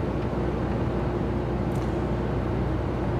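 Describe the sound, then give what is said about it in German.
A Mercedes Actros 1851 semi-truck tractor unit (18 tonnes, 510 hp, 588,000 km, the oldest truck in the fleet) idles its diesel engine quietly and steadily, a low continuous rumble with a faint hum and no change in pace, without any talking. “Schnurrt immer noch leise vor sich hin.”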